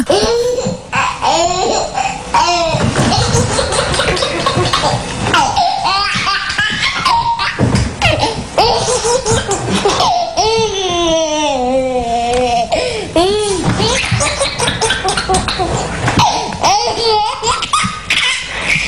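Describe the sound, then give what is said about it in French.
A run of babies giggling and squealing with laughter, bright high-pitched bursts following one another loudly and continuously, with bits of babbling mixed in. “On est la seule radio à Lyon à vous passer que des rires d'enfants, de bébés, hein.”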